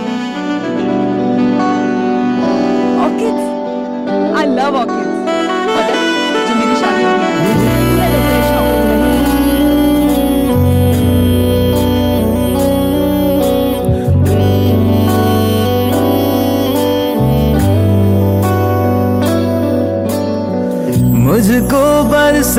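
A melodic song introduction plays loud and full on 105.9 FM radio, with layered instruments over a steady bass line that drops in after a few seconds, no voices yet.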